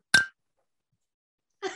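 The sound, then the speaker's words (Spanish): Glasses clink together in a toast: a bright ringing tap that fades quickly, then after more than a second of silence, another clattering clink of glassware. “Todos toman, salud.”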